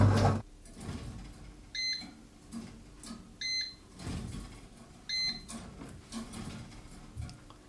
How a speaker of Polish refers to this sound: Tak, i ten dźwięk piszczący, który przed chwileczką był słyszalny, e, to jest właśnie sygnał, że pieczenie chleba dobiegło końca, więc właściwie nie pozostaje nic innego, tylko już wyjąć chleb.